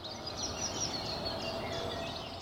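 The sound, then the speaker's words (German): Quiet early-morning outdoor ambience recorded at 5 a.m. in front of a house's front door: a steady low background hum with faint, scattered bird chirps and calls throughout. “Oder den Montagmorgen, gleiche Zeit, selbe Tür.”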